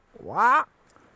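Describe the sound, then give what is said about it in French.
A person imitates a roe deer's bark with one short, rising 'wah' call, fairly loud, then silence. “Et là, on écoute, euh, on entend euh, un chevreuil crier euh, dans le lointain, Ouah, ouah,”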